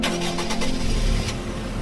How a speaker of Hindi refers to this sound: ठंडी हवा और हाईवे पर दौड़ती हुई गाड़ी मजा ही अलग था ड्राइव का